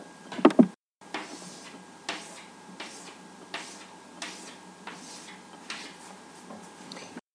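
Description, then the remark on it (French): Chalk scratching and tapping across a classroom blackboard in a steady series of short strokes, fairly quiet, after a brief knock at the start and no voices. “Et ça, bien sûr, c'est la craie sur le tableau.”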